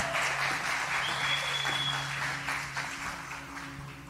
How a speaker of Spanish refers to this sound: Un aplauso a mis panelistas, bellas, hermosas.